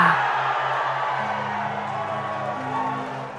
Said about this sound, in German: Deine Familie und die beiden Profis am Rand sind völlig aus dem Häuschen und jubeln dir zu, so laut sie können.